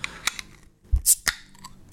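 A swing-top bottle is opened: a few sharp clicks, then a soft, dull pop followed by a brief hiss of escaping gas, with no voices.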